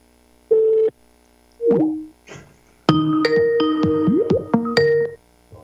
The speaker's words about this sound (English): Please leave a message after the beep.